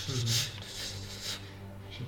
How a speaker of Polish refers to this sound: Słyszysz zapisywanie.